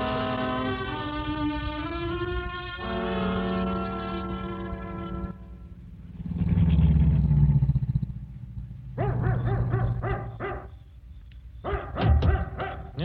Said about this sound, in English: all right, Bates. You can stop barking.